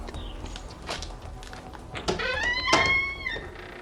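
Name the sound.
door opening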